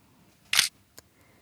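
A single crisp camera shutter click, a synthetic shutter sound designed for a smartphone to play when snapping a photo, followed by a faint tick; short and isolated against near silence.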